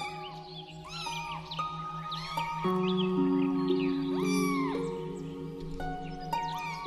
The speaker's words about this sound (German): Doch die Babykatzen haben andere Pläne mit dir. Mit tollpatschigen, wilden Sprüngen laufen sie dir direkt vor die Füße und mauzen dich frech an.